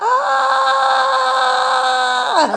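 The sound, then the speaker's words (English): A single loud, high-pitched sustained scream from an adult voice imitating a little boy at a school for deaf children, held steady for about two seconds before dropping sharply in pitch at the end. “He's so handsome that loves to scream.”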